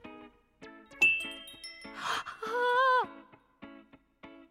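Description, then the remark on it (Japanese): Bright, sparkly piano-like notes tinkle one after another from a crescent-moon-shaped toy piano whose keys light up when touched, with a shimmering chime swell and a sliding, glittering tone in the middle. Clear, with no talking. “しかもこの三日月ピアノ音もキラキラしてないあーすごい”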